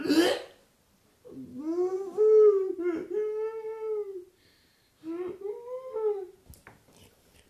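An infant cries in long, wavering wails with a rising and falling pitch, two drawn-out bursts separated by a short pause, followed by a few soft whimpers and breaths.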